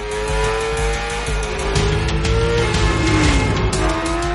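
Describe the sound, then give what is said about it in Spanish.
A car chase: a black 1970 Chevrolet Chevelle with two white stripes pursues a sport motorcycle zigzagging between cars, engines roaring steadily and tires skidding in long squealing sweeps that bend up and down in pitch, loud throughout with no voices. “Zigzaguea entre los coches. Derrapa y pasa entre dos.”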